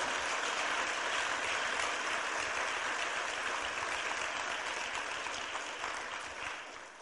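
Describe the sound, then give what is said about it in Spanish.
An audience in Puerto Rico applauds its leaders steadily for about seven seconds, a dense, even wash of many hands clapping that fades slightly at the end, with no voices over it. “Así que nuevamente un aplauso para sus líderes, para ustedes como puertorriqueños.”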